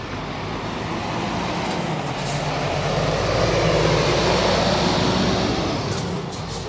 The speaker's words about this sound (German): Der Lärm, der von diesen Autos ausgeht, ist mir einfach unverständlich. Gut, das ist sogar ein riesen Laster, muss man sagen.